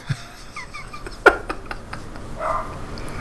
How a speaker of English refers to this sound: no barking, Leela. God, there's a dog out front.